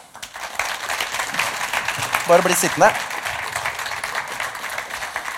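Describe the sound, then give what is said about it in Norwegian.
An audience applauds in a steady, dense wash of clapping that lasts the whole clip, while a voice speaks briefly over it partway through. “Gi denne gjengen en stor applaus.”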